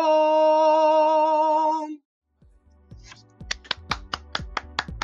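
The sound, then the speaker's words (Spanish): A sustained, harmonically rich musical note holds and then cuts off; after a short silence, sparse, uneven claps start up from a few people, growing a little denser toward the end. “Ahí, este, espero se hayan eh, escuchado los aplausos y ustedes también imagínenselo.”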